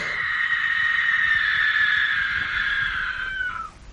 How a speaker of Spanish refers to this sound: Un espantoso alarido interrumpió a Elena. ¿Qué es eso? ¿El qué? No me diga que no ha escuchado nada.